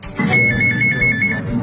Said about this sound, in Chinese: 反诈中心预警响起，被害人正与诈骗分子通电话。